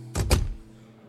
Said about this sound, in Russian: Дверь захлопывается.